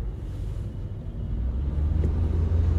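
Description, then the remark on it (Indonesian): A heavy bus engine rumbles steadily, a deep low drone that swells slightly louder toward the end, as the bus idles or creeps forward while queuing in traffic. “bis kamu diam dulu bis bis kamu diam aku mau lewat kamu jangan menyalip saya aku sudah mengantri dari tadi kamu tidak boleh menyalip”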